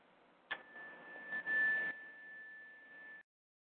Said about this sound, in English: And I am going to chime our sound here.